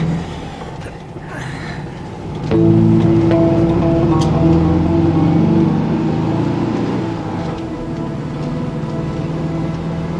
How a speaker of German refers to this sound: Na los, schmeiß den Motor an. Wenn die Karre noch anspringt.